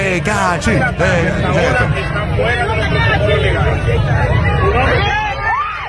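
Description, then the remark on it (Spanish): A large crowd yelling and shouting all at once as a man is being taken out and brought down, a loud, dense wall of overlapping voices that holds steady for the whole stretch, with rumbling low noise beneath it. “Miren cómo la gente grita.”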